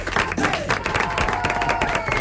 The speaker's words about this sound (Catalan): Perdó, un aplaudiment.